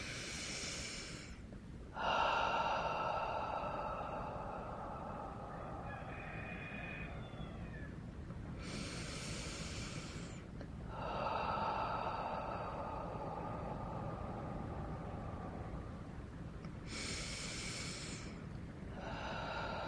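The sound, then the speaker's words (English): Slow, forceful breaths blown out onto the hands, three long exhales spaced several seconds apart, with soft voiced breathy tones between them and no speech. “breathing out onto the hands wherever they may need it.”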